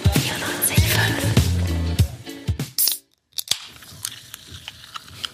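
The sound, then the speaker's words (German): Crinkling and handling noises, then a short, sharp hiss of a drink being opened, followed by a brief silence and a few light clicks. No one speaks. “dann kommt dieses zischende, frische Geräusch”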